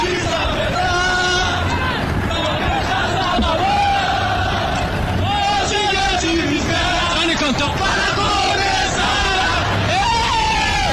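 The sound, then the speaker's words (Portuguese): Internacional football players and fans sing and chant together in a stadium after a title win, a loud, sustained roar, many voices blending with shouts and whoops, filling the space continuously from start to finish. “Jogadores para que eles cantam com a torcida.”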